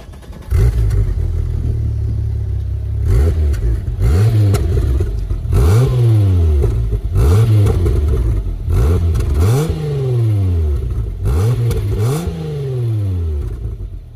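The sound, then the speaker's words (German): A Golf R32 car engine revs repeatedly, about six rising and falling blips in a steady rhythm, each climbing quickly in pitch then dropping back, loud and continuous with no talking. “Aber speziell, wenn man schon mal einen Golf 4 R32 oder auch einen Golf 5 R32 gehört hat, die klingen”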